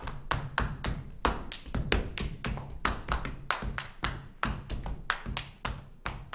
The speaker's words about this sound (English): Slapping thighs, shuffling feet, and patting hands. This was how they got around the slave owner's ban on drumming improvising complex rhythms, just like ancestors did with drums in Haiti or in the Yoruba communities of West Africa.